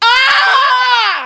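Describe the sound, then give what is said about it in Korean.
A person imitates a wild crow's caw with one loud, drawn-out, harsh vocal cry that rises and then falls in pitch, heard alone for just over a second. “까마귀는 어떻게 해요?”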